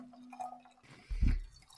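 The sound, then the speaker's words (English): An 8.4% beer is poured into a Holy Goat glass: a soft trickle and drip, then a brief, louder low gurgling splash before it settles. No one speaks. “And I'm even going to use my Holy Goat glass on this one.”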